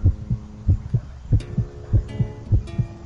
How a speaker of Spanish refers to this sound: El corazón bombeaba en mi pecho aceleradamente al reconocer el rasgueo de unas cuerdas que me resultaban familiares